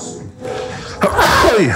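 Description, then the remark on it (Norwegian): A single loud sneeze bursts out midway, a sharp breathy explosion trailing off into a voiced tail, with soft background sound and voices around it. “Sånn suggerende musikk i bakgrunnen og nysing og hosting”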